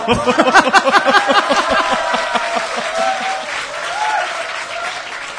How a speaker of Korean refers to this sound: 박수를 쳐주셔서 고맙습니다만 답변으로서는 매우 질이 낮지 않은가.